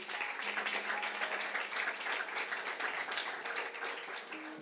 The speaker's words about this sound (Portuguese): Você pode dar um aplauso para Jesus?